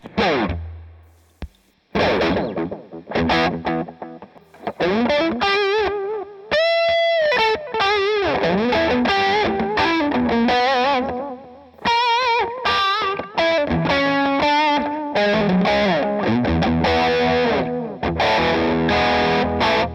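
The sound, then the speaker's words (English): An electric guitar played through a VVco Delayrean delay pedal, distorted lead lines with sustained notes and repeating echoes trailing each phrase, steady and loud throughout with no talking. “VVco’s Delayrean Delay Pedal is Like No Other!”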